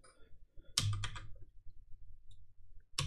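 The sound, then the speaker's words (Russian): A few sharp clicks from a computer mouse or keyboard as someone clicks to open community settings, fairly crisp, in a quick cluster near the start and one more at the end, with quiet room noise between. “Вот, нажимаю, сейчас она откроет.”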